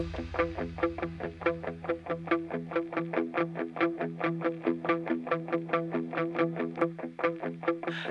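A heavy alternative rock intro: loud, distorted guitar chords hammered in a steady, driving rhythm over a sustained low rumble, with no vocals yet.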